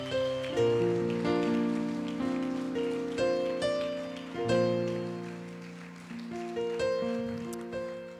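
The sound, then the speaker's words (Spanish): An audience claps steadily, a dense continuous patter of applause blended with sustained keyboard chords that shift every second or two, all at moderate volume with no talking; applause given to God. “Dale un fuerte aplauso a nuestro Dios.”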